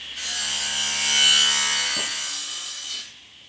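Wood being sawn in a workshop where a group works on a fitting for a wagon to be set up on the grounds in summer: a steady, hissing rasp that runs for about three seconds with a faint low hum beneath it and a single knock partway through, then fades out. No one speaks.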